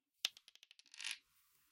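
A ten-sided die is rolled: a small hard object clatters onto a hard surface with a sharp first hit, then a quick run of about eight diminishing clicks, ending in a brief skittering rattle before settling.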